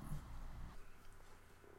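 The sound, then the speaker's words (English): A low, gurgling stomach rumble lasts under a second, soft, then fades into quiet background noise with no talking. “No, that was my stomach.”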